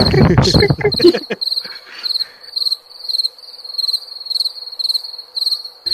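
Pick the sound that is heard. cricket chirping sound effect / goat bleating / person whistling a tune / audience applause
cricket chirping sound effect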